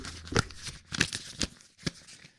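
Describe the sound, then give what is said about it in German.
Rustling and crinkling of paper as someone rummages through sheets, with four distinct bursts of shuffling spread irregularly over a couple of seconds; no one speaks. “Ich, ich krusch hier nochmal in meinem Papier.”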